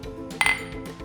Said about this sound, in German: Und ansonsten stoßen wir symbolisch alle mal auf. Aber, äh, wir stoßen an.